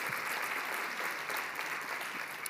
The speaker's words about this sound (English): Methodist, give you a big round of applause.